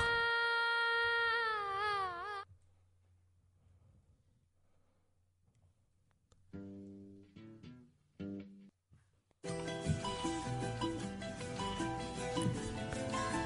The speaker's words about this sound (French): Je vous souhaite la bienvenue en Inde. Vous écoutez une musique hindoustanie qui provient de l'Inde du Nord.